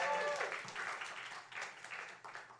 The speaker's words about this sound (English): Give yourselves a round of applause for being at Secretly Incredibly Fascinating Live.